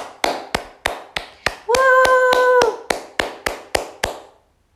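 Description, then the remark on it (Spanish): A concert audience claps steadily after a singer finishes a song, about a dozen evenly spaced claps in a regular rhythm. A brief sustained tone rings out partway through, and the clapping fades into silence at the end. “Listo, hasta creo que quedaba un pequeño silencio después de, de los aplausos hasta que él comenzaba otra cosa.”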